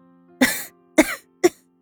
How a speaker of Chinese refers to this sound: 一口气没倒上来。温之夏呛住了喉咙，剧烈的咳嗽起来。